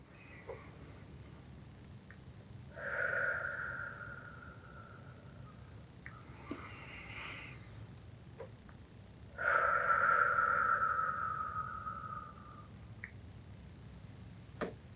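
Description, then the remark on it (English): Two slow, drawn-out breaths of a hand-breathing exercise, breathing in as a finger traces up and out as it traces down, each lasting a few seconds and separated by a long pause, otherwise quiet with a few faint clicks. “That was hand breathing.”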